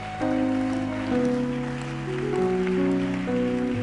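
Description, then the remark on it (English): A steady, dense patter of a church audience clapping at a Sunday fundraising service runs throughout, blended with sustained keyboard or organ chords that shift every second or so. No one speaks. “Uh, I hope your clapping means a big donation and contribution.”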